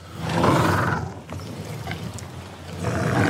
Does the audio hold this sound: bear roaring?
yes